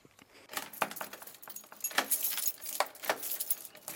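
Metallic keys jangle and clink repeatedly, with scraping rattles of a lock as the gate of Grafeneck Castle (Schloss Grafeneck) in Germany is unlocked to enter its inner courtyard, over about four seconds, no voices present.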